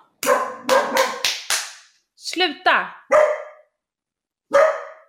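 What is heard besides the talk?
dog barking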